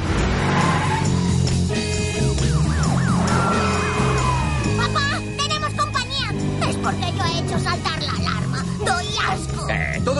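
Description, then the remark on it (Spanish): Sirens from three police patrol cars wail in rising and falling sweeps as they chase a getaway car, over revving car engines and screeching tires, a loud, busy chase scene running the whole time, with voices mixed into the commotion. “Tres coches patrulla los siguen.”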